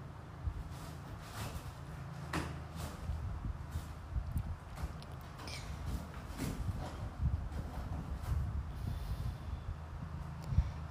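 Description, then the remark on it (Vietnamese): A pet cat scratches at a cardboard box, a string of rough, rasping strokes repeating irregularly over a low steady rumble, with no one speaking. “ý là con mèo nó đấy mọi người nghe thấy tiếng động thì là nó đang cào cái thùng cắt tông ấy”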